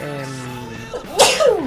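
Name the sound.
sneeze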